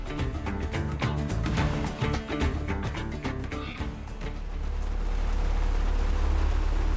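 Rain pattering and tapping sharply on a boat's hard surfaces in pitch darkness, starting just as the boat is about to set off, busy at first, then settling into a steady, low, continuous rumble; no one speaks.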